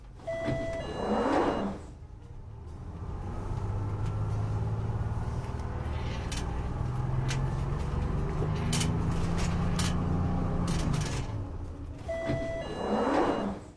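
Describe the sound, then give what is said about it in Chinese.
A coach's engine rumbles steadily as it pulls in at its stop, framed by short electronic beeps and loud pneumatic hisses of the doors opening at the start and end. “汽车/开门音效”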